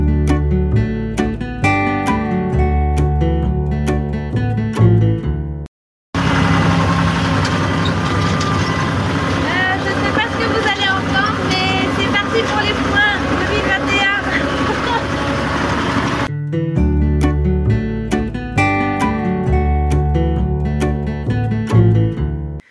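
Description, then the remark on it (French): A steady irrigation pump engine drones with a broad, rumbling noise for about ten seconds, framed by bright tonal music at the start and end. “On a allumé la pompe, tout a marché.”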